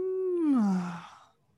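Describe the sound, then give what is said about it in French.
A person imitates a cat's meow with an open mouth as a vocal warm-up to reconnect with their voice: one drawn-out, nasal vocal tone that slides downward in pitch and fades away. It is fairly clear, with no speech. “Alors, typiquement, se reconnecter avec sa voix, moi, je faisais ça avant, c'est euh, faire euh, des petits sons comme des miaulements euh, de chat bouche fermée.”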